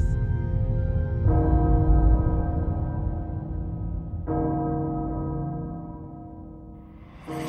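A large, deep castle bell tolls slowly and loudly, heralding danger, each heavy stroke about three seconds apart, its rich ringing hum sustaining and overlapping between strikes.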